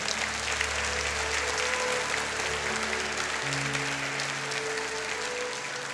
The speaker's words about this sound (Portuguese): Pode aplaudir todos vocês, Deus abençoe.